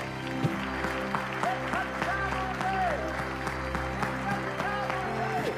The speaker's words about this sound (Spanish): Dale un aplauso grande al Señor en este primer mensaje del año. Bendito sea Dios.